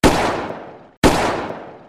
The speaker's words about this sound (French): Et là, deux coups de feu.